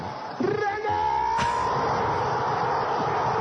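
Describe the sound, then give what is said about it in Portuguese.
A dense, loud stadium crowd roars continuously after a goal by Iguita, with a few rising cheers or horn-like tones cutting through early before the roar settles into a steady wall of noise. “Olha o barulho da torcida.”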